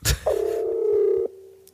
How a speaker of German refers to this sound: Das ist, das ist ein Triple oder was? Das ist der blaue Alarm.